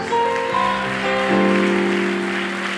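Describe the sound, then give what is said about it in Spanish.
An audience applauds Jesus steadily for about three seconds, the dense clapping mixed with sustained keyboard chords that shift pitch a few times underneath. No one speaks. “Alguien de un aplauso a Jesús.”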